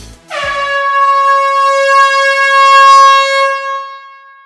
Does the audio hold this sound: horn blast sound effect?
yes